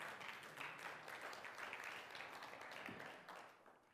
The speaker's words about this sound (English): We can clap on that. We can clap on that.